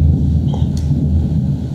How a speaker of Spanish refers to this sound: Verga, güey, está puta temblando por los truenos.